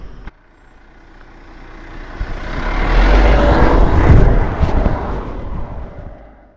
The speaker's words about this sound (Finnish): Joo, eli nyt olemme auton lämmössä. Huristamme kohti Helsinkiä tästä Tikkurilan jostakin liittymästä.